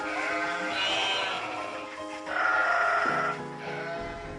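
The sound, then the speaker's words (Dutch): A flock of sheep bleats loudly, several overlapping wavering calls rising and falling continuously for a few seconds with no one talking. “en die beschrijft dan dat er in de hoofdstraat smiddags om vijf uur geroepen werd: de schapen komen, de schapen komen.”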